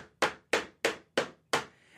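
Five sharp, evenly spaced hammer blows, like nailing into a wooden church door, depicting Luther nailing his 95 Theses, each crack ringing briefly before the next. No voices.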